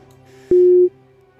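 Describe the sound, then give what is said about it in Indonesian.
A single steady electronic tone of a phone busy signal sounds loudly for about a third of a second over a faint low hum, then cuts off abruptly, after a phone call has dropped. “Ah, oke, kayaknya terputus.”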